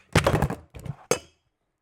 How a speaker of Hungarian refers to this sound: én meg most lecsaptam a mikrofont